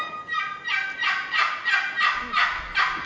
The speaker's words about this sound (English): But I was going into areas last year and could not make turkeys gobble. They just wouldn't gobble that particular morning. And then I'd crank out that old box call